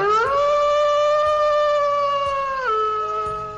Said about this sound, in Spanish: Ya llega con su manada de lobos también.